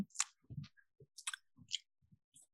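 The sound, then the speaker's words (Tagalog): A voice imitates wet French kissing with tongue, using quick smacking, slurping mouth noises. It is a string of short moist pops and squelches in an irregular rhythm, fairly quiet, with no talking. “Parang laway sa laway, ganyan.”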